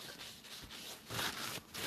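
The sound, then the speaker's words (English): A phone screen being wiped clean, heard as a steady, breathy rubbing that swells in a few quick strokes, fairly loud and continuous with no talking over it. “I'm trying to fucking clean the phone because there must be something on the damn phone here.”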